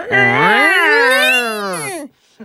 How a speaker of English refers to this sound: You can hear the cat winding up.